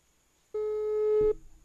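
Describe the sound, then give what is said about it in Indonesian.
A single steady electronic phone tone sounds for just under a second, loud, then cuts off abruptly, like a call ringback as a phone call is placed, with no talking. “coba kita telepon langsung aja orangnya oke okay?”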